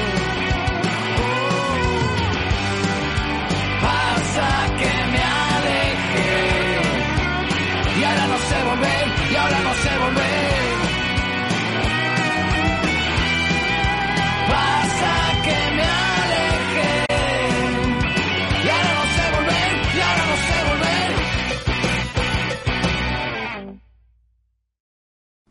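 A loud, dense rock song with distorted guitars, driving drums and a shouted-sounding vocal line, playing steadily before cutting off abruptly near the end.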